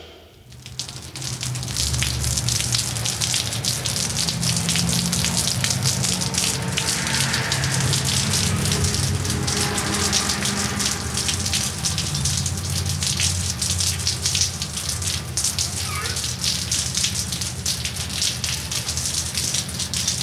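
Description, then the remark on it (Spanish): Steady, dense rain falls on city streets, hissing continuously for about twenty seconds, with a low rumble beneath it like traffic or water running off pavement. No one speaks. “Imagina que paseas por la ciudad mientras la lluvia moja tus cabellos.”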